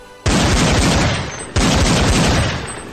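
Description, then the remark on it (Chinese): Two distant rifle gunshots from the direction of Qida, a little over a second apart, each a sharp loud crack trailing into a long rolling, fading rumble. No voices. “一声枪响，隔着很远，声音清脆。这是步枪的射击，而且来自齐大方向。”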